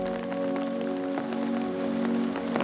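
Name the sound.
rain falling outside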